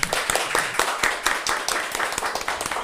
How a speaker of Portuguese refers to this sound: Uma salva de palmas aí